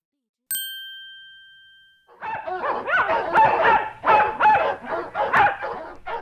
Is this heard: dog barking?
yes